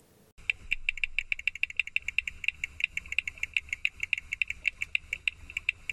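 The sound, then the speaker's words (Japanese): A frog calls in a rapid, steady series of sharp, high clicking pulses, fairly loud, continuing for several seconds over a faint low background rumble, with no voices. “皆さんはフロッグ ID というアプリを聞いたことはありますかカエルの鳴き声を録音することができるこのアプリによって新たに5種類のオーストラリア産のカエルが確認されています。”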